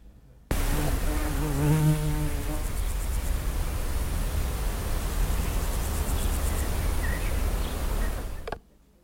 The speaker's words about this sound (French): tu as entendu une mouche